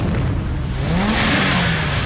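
A car engine in the video game Need for Speed revs loudly and steadily, its pitch climbing and then easing back over a couple of seconds, with a dense roaring, whirring texture and no voices.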